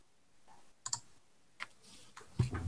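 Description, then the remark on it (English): Many dice clatter across a hard table in a few quick bursts of sharp clicks, the last tumble louder and fuller, with no voices over the rattling. “You watch his entire attention focus down on the board as he picks up the dice and rolls.”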